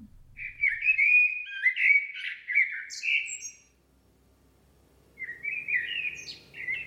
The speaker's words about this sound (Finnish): Kello on viisi aamulla. Olen valveilla. Myös mustarastas on valveilla. Se laulaa ja minäkin tavallaan haluaisin.